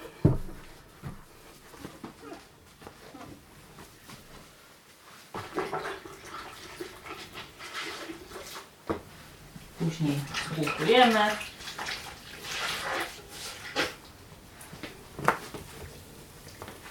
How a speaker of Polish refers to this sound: To samo jeśli chodzi o wewnętrzną część parapetu. Również zmywamy wodą z detergentem.